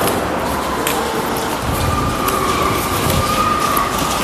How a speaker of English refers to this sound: Oh, I hear a car. I hear a car. Where's it? Where's it? Oh, it stopped.